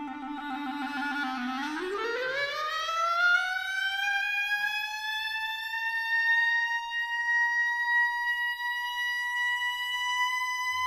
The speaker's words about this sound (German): Ja, genau dieser Part, dieses Glissando nach oben, man muss eigentlich nur dieses Glissando auf der Klarinette hören und man weiß eigentlich irgendwie sofort, wo es lang geht.